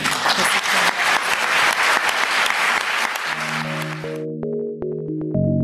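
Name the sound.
audience round of applause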